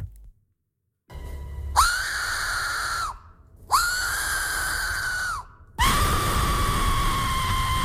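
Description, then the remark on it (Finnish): A shrill, loud whistle sounds in three long sustained blasts, each swooping up in pitch at the start before holding steady, with short gaps between them and no talking. “Kiva pilli.”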